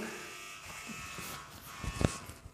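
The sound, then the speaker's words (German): A doorbell buzzes in one steady, raspy drone lasting a couple of seconds, flat and unchanging in pitch, with a couple of brief soft knocks near the end. “Ah, das war die Klingel, ist egal. Das ist die Klingel.”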